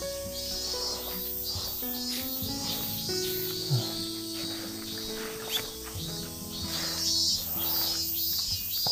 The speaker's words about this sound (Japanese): セミの音。いい感じっすね。夏ですね。